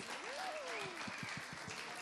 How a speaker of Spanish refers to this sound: Y aplauso a los bailadores.